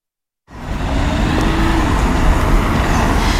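Steady city street traffic on the streets of Riga early in the morning fills the scene after a half-second of silence, a continuous low rumble of passing cars and engines with a faint tonal hum, no voices present.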